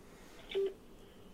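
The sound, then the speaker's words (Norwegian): A short electronic keypad tone beeps once on a phone line, a brief steady pitch over faint line hiss, as a call is being transferred to the on-duty staff of a hospital's surgical department. “Nei, du mister meg ikke hvis jeg prøver å sette deg over nå, så bare hold linja, det. skal jeg prøve å sette deg over.”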